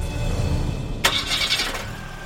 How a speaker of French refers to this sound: démarra alors le moteur du combi.